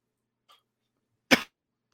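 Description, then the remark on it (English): A single sharp, forceful cough preceded by a faint breath, with no talking around it. “I wouldn't have this cough then.”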